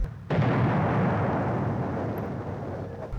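A single loud bomb blast erupts suddenly after a brief quiet moment, then rolls into a heavy, sustained rumbling roar that fades only slightly over the next few seconds.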